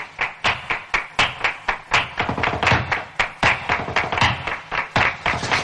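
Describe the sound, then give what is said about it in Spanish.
Rapid flamenco zapateado footwork by a woman dancing under a staircase: a dense, steady run of sharp heel and toe stamps hitting a hard floor, loud and percussive, with no voices. “Araceli continúa zapateando.”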